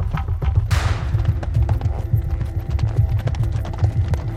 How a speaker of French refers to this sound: Il traverse la plaine à toute allure sur son cheval.